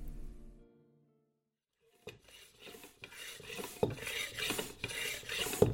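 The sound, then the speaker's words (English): A racing bike tire being pumped up rock hard: after a brief fading hum and a moment of silence, steady rasping, hissing pump strokes repeat in a quick rhythm, growing slightly louder. “When you pump up the tires of a racing bike like this beauty here, you want to make the tires rock hard.”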